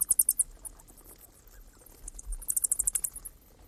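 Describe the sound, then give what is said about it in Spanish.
A cluster of bats squeaking in a very deep cave: two bursts of rapid, very high-pitched chirps, one at the start and another near the end, over a low, quiet rumble. “Lo que estáis escuchando es un auténtico racimo de murciélagos en una cueva muy profunda, en una cueva con rastros prehistóricos, la cueva Apolo 11.”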